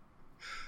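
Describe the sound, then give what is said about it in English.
A single sudden sneeze: a short, harsh, hissing burst that cuts in after a moment of quiet and ends abruptly, with no talking around it. “God so, bless you.”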